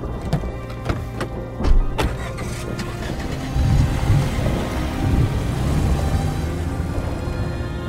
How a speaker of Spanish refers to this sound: los estallidos de los truenos, parecía que el cielo se incendiaba en llamas.